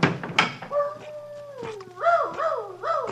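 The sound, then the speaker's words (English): A dog named Chip howls in a long wavering tone that slides downward, then breaks into a few rising and falling yelps, fairly loud against a low steady hum, with no talking. “Quiet, Chip. What are you yelling about?”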